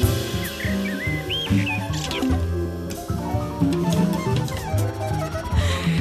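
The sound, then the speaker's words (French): Short, whistled blackbird phrases rise and dip over dense instrumental music, fairly clear at first, then sinking into the busy musical backdrop. “Sur votre album, vous êtes à ça de la musique concrète, il y a un merle.”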